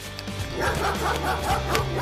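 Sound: dog barking furiously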